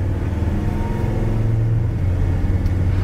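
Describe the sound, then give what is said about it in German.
A vehicle drives steadily over an ordinary road bridge crossing a railway and the A14 motorway, its engine and road noise forming a continuous low rumble, with no voices. “So, wir überfahren jetzt mal die Eisenbahn und die A14 auf einer normalen Verkehrsbrücke.”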